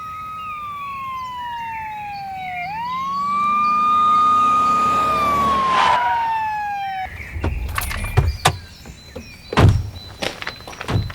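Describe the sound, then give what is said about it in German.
A police siren wails with rising and falling pitch as the car approaches and loudness swells, then cuts off around seven seconds, followed by car door clunks and footsteps. “Da kommt ein Streifenwagen.”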